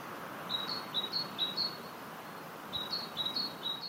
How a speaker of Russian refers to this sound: Вот так, например, поет большая синица.